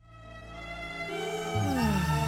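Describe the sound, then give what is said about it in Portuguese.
A short musical jingle plays alone, with sustained low tones and bright sliding pitches that bend downward, steadily growing louder over a couple of seconds with a growling, roar-like edge. “Este jingle está do caralho, não está?”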